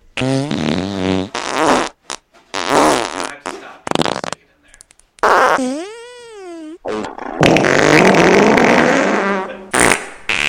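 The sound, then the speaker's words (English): Loud, buzzy fart noises come in a rapid string of bursts, one wobbling up and down in pitch, before a long, sustained raspy fart stretches out near the end. “Yeah, I want a lot of fart noises. Hang on. Uh, do like a 15 second fart right now.”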